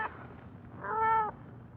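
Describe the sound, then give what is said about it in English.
A single drawn-out cat meow, clear, rises out of a low murmuring background and lasts about half a second before fading back into the ambient noise. “Don't hurt the cat.”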